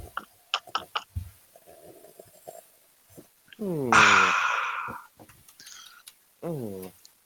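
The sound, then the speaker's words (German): A few quick slurps of coffee from a cup, followed by a loud, drawn-out satisfied sigh and a short hum, with a second voice sighing briefly near the end. “Na dann Hoch die Tassen und ja. schlürfen. Schlürfen, genau.”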